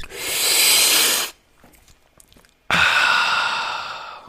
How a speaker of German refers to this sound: Und dann mal mit der Vorstellung Tee oder Cappuccino oder Milchkaffee oder Glas Wein und das aber mal genussvoll einschlürfen und dann wieder genussvoll ausatmen. Ich mache das einmal vor.